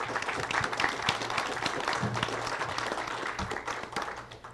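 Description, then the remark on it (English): An audience at an Engage ICT event applauds to thank the sponsors, a steady, dense wash of many hands clapping at a fairly even loudness throughout, with no voices breaking through. “Um, let's, so let's have a round of applause and thanks to our sponsors.”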